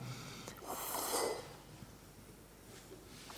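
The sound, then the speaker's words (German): A single soft, airy Sitali breath inhaled with the tongue pushed slightly out past the lips, a hissy rush of breath swelling for about a second before fading into quiet. “Also die Zunge von den Lippen ein kleines Stück vorschieben und Prana einatmen.”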